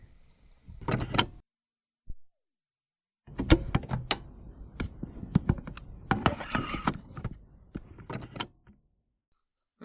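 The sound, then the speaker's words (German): Inside a bus as passengers get off at the Grummel: rustling, shuffling and scattered clicks and thumps in irregular bursts, with a brief pause before a busier stretch of movement. No talking. “Wir sind heute auf dem Grummel und wir steigen jetzt aus dem Bus aus.”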